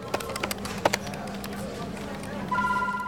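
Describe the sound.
Taps and clicks punctuate a busy office with murmuring voices, where staff answer telephones to handle immigration applicants' files; a steady electronic telephone ring cuts in near the end, clear.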